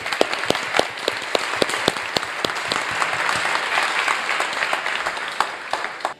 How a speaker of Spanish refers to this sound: Y te digo, allá atrás hay también unas personas que nos están ayudando, todos los de la mesa también, un aplauso para todos de allá atrás.